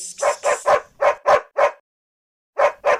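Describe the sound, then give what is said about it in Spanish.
A dirty dog barks in a quick run of six sharp, yelping barks mixed with whiny whimpering, falls silent briefly, then lets out two more barks. No one speaks. “Ándale, bastantes problemas tenemos ya como para cargar con este perro mugroso.”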